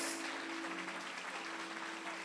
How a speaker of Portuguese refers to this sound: Será que você pode aplaudir Jesus pelo Espírito Santo?